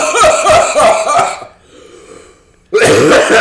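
A harsh, rough cough rattles out in a rapid burst of loud hacks, followed by a short quiet pause and then another strong, raspy cough.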